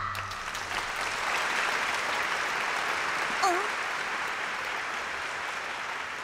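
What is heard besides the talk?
applause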